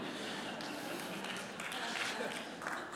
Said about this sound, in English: I thought there would be a bigger applause.